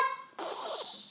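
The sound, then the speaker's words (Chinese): A voice imitates the giant's big sneeze while telling a Jack and the Beanstalk story: a brief, strained voiced buildup snaps into a loud, breathy, hissing blast that holds steady for almost a second. “这时候，大巨人打了个大喷嚏，哈，哈，哈，”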